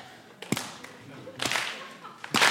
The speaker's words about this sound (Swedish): Det första man kan börja med det är den här handklappen. Va? Det är ganska tacksamt.